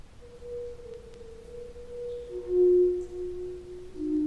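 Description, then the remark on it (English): Stalactite organ tones ring out in the Luray Caverns, a recording of Leland Sprinkle playing the stalactite pipe organ: a few sustained pure, mellow notes shifting pitch one after another over a low, hissy background, moderately quiet with no voices. “And what you're hearing now is a recording of Leland himself playing the stalactite pipe organ in the Luray Caverns.”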